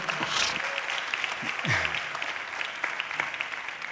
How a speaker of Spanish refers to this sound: ¿Cuántos dicen amén? Denle un aplauso Jesús, por favor.